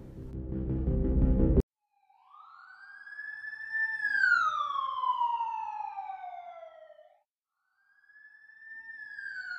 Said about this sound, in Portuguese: Dia 2 de agosto, uma tarde nublada. Era um dia como os outros na emergência do Hospital de Ceilândia, até que um paciente chega de ambulância.